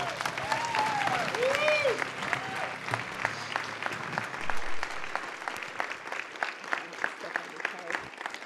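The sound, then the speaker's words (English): A crowd applauds steadily to welcome a speaker, dense clapping that thins toward the end into scattered individual claps, with a few whoops and cheers rising over it early on. “I, I love introductions and being clapped for before I start because I usually don't get that when I'm done.”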